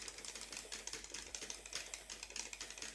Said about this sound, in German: Guck mir nicht auf meinen Joystick. Ferkel. Ich guck, wie du klickst.